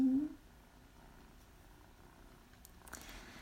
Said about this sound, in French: Il y a mon chat qui ronronne. Bah oui.